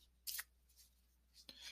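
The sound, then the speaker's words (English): Cards being shuffled in two short, crisp bursts of papery riffling, a brief pause between them, fairly quiet with no voices. “So I've been shuffling here, and normally something will pop out, but I feel like maybe that was the message that needed to come out.”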